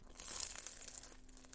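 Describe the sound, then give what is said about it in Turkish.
Someone bites into a flaky croissant, giving a continuous crisp crackle and crunch for about a second and a half, fairly soft, with no talking. “Evet, kuru basanımdan bir ısırık aldım ve muazzamdı.”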